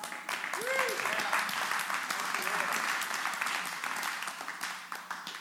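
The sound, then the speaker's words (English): A crowd applauds steadily for several seconds, a dense wash of many hands clapping at once, with a few faint voices calling out beneath it before it begins to taper. “I was wondering if I was going to clap. I thought it was pretty good.”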